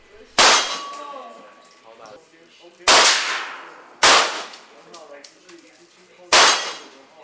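Four loud handgun shots fire at uneven intervals at a shooting range, each a sharp crack with a short ringing decay, with only faint background noise between them.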